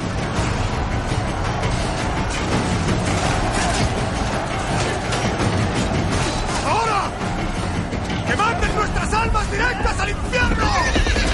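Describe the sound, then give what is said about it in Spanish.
A horse neighs shrilly a few times as it charges up from a ship's hold across the deck in a battle, over a loud, chaotic din of clattering hooves on wooden planks, crashing impacts as a ship rams into it, and a crowd of shouting voices. “Monta sobre un caballo que sube de la bodega y arremete contra los persas.”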